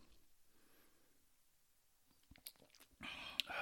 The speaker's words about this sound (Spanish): te voy a dar aquí un traguito mi tequila después de haber hecho que somos muy profesionales y tomamos mientras grabamos, perdón.